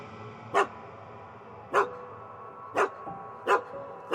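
A dog barks five times in short, sharp bursts, irregularly spaced over a few seconds, against a steady low background hum. No voices.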